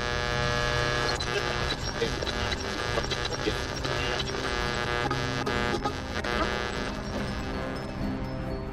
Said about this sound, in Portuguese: única coisa que vocês escutam é interferência. Se não houver muita filtragem, se não houver uma sintonia fina, a gente não vai conseguir pegar nada aqui no rádio. Esses rádios não estão tão são tão fáceis assim de sincronizar com a frequência.